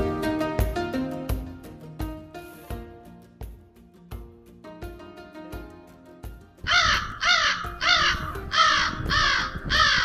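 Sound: crow cawing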